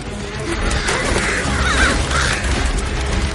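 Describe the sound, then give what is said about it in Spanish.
Harsh cawing from a flock of crows on a plain rises out of a dense, steady wash of rumbling noise, the calls clustered and overlapping near the middle, fairly loud, as a large burning branch is waved at the birds. “Coge una gran rama ardiendo y la agita ante los pájaros.”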